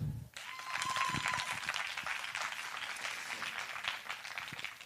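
An audience bursts into sustained applause, many hands clapping in a dense, crackling wash that starts abruptly and holds steady at a loud level for several seconds, with no talking over it. The audience claps in answer to a host asking who among them is a 'Busenfreundin'.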